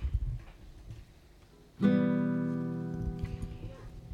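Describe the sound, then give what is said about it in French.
A single E minor chord strummed on an acoustic guitar, fretted with the middle finger on the second fret of the second string and the ring finger on the second fret of the third string, rings out clearly after a short quiet pause, its notes sustaining and slowly fading over a couple of seconds, with faint murmuring underneath. “Pour le mi mineur, faut tout simplement euh, mettre votre majeur, deuxième case, deuxième corde”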